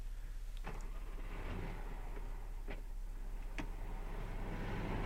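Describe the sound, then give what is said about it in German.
A car engine rumbles steadily at a low pitch as the car turns, with a few sharp clicks and knocks scattered over it. No one speaks, and the sound stays at a moderate, even level. “Siehst du, er geht schon zu seinem Auto.”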